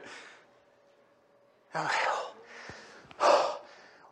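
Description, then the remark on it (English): Heavy, out-of-breath panting after a game of one-on-one: a few loud, rough breaths rasp in and out in uneven bursts, with quieter breathing in between and no talking. “are you so out of breath?”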